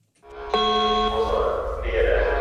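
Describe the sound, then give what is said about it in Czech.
A fire station alarm signal sounds at the central fire station in Pardubice, announcing a call-out to firefighters: a sudden, loud bell-like electronic tone rings steadily for about half a second, then gives way to a noisy, sustained wash of sound. “Takže teďka při vyhlášení poplachu nám přišla přímo událost do toho tabletu.”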